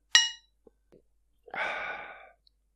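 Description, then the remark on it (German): Two glasses of a lightly sparkling, lemon-flavoured drink clink once in a toast: a single bright, ringing chime that fades within a fraction of a second. A couple of soft ticks and a longer breathy, hissing exhale follow. “Ich sag mal Prost”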